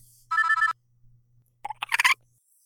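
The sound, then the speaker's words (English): A telephone rings once with a short electronic warbling trill as the first caller comes in on the phone lines, followed by a brief cluster of clattering clicks, like a handset being picked up. No one speaks. “Okay, we're turning the phone lines on. All right, and we have our first caller.”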